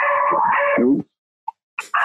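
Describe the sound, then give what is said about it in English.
A female dog howls in agitation at fireworks set off outside a window, a loud wavering howl lasting about a second, followed by a short pause, a tiny yip, and another sharp bark-like outburst. A voice briefly speaks. “I don't know if you can hear that, but someone just shot a fireworks out outside of my window, and my dog is losing her mind.”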